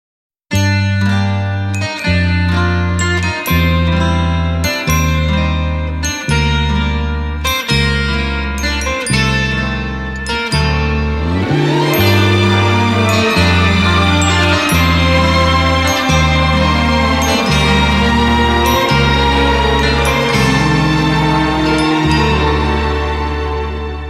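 A loud instrumental song intro with steady, rhythmic chords pulsing over a deep bass line, joined midway by bright, tinkling high notes. No one sings or speaks.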